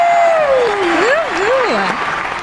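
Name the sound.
audience applause and cheering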